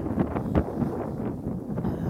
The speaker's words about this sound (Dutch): Nou, dat ik eigenlijk dat je ook goed kan horen, want het waait nu behoorlijk